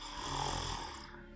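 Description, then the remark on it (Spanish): A person with both hands on their face makes a single drawn-out snoring noise, a rough, rattling breath held steady for over a second before trailing off, imitated by voice. “Ves cómo pone ambas manos en su cara y empieza a hacer ruidos como de ronquidos.”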